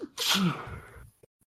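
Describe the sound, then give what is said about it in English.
A single loud sneeze in a very dusty place: a quick intake followed by a sharp, bright burst of breath that trails off within about a second, with a faint sniff just after. “sneezes.”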